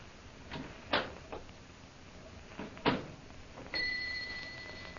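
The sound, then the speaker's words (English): Two sharp clicks or knocks sound a couple of seconds apart, then a call bell rung to summon a servant rings out with a steady, sustained ringing tone that carries to the end, with no one speaking. “Most high superior, you rang for me?”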